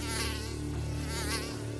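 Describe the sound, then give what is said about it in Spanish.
A mosquito buzzes steadily in flight, a thin high-pitched whine that rises and falls slightly as it moves, loud throughout with no voices. “El león rugía y manoteaba tratando de quitarse de encima al mosquito, que era realmente rápido, y volaba de una pata del león al lomo, de la melena a la nariz, picoteándolo todo.”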